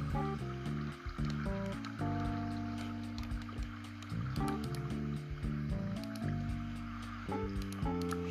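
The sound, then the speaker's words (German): Blocky video game water, placed to push an iron golem into a sleeping room, sloshing and splashing in quick repeated bursts, mixed with steady tonal game music throughout. No one speaks. “Wasser.”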